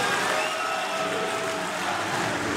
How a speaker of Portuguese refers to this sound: Mais um forte aplauso para hum, André Ventura, numa altura em que faz uma referência ao presidente recém-eleito do Brasil, Lula da Silva.